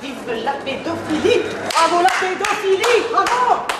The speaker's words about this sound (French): Le César de la meilleure réalisation est attribué à Roman Polanski pour J'accuse. Des applaudissements, mais aussi quelques huées.